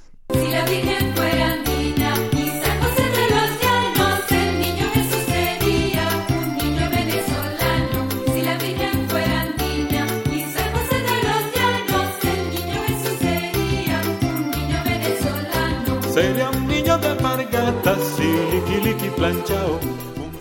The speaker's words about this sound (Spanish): Aquí, aquí en Venezuela se le dicen, no se le dicen villancicos, se le dicen aguinaldos, por ejemplo.